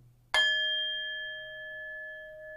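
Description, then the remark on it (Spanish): A small metal bell is struck once, close and loud, with a bright clang like a boxing ring bell. Its clear tone rings on steadily and fades slowly afterward. “Es campana de box. Parece campanita de box.”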